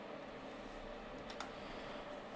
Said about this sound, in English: Let me. I'm sorry. I'm gonna. You're gonna hear me typing and clicking again.